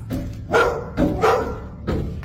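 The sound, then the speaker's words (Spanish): A dog barks four or five times in a video being played, in an uneven rhythm, each bark a loud, mid-pitched burst with short gaps between, and no one talks over it. “Lo, lo de los perros, ¿no?”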